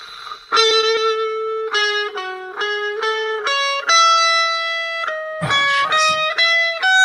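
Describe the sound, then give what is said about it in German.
A song plays through a phone speaker during a song-guessing quiz, thin and shrill with a harsh, buzzy tone and no bass, its melody stepping through a steady run of sustained notes with no one talking. “Das hat jetzt unfassbar schrill geklungen auf dem Handy.”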